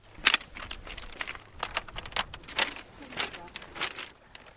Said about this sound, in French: Mmh, le son produit en marchant sur la plage de Galais Songu est unique et à l'homme suggère que vous veniez ici en personne pour vous rendre compte par vous-même.